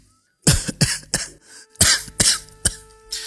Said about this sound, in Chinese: 凤年在屋里的咳嗽声彻底的拉回了宝四的注意力。